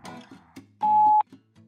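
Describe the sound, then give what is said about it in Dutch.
A single steady voicemail beep following a Dutch voicemail greeting, a clean pure tone lasting about half a second, rises loud out of soft background murmur and then cuts off abruptly. “Spreek wat in na de piep.”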